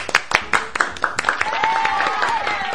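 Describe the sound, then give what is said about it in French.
A small group claps in a quick, uneven rhythm, fairly loud, while a raised voice or cheer rises briefly underneath toward the end. “On peut l'applaudir. Bravo.”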